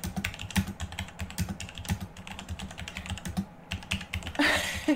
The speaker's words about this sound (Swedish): alltså han är, hans jävla låter som att han slår sönder hela sitt skriv varje gång han skriver.